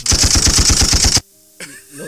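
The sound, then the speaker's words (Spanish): A rapid, loud burst of gunshots fired at night, around 3 a.m., about ten in quick succession like automatic fire, cuts off abruptly; after a brief silence a voice is faintly heard. “Lo, echaron balazos.”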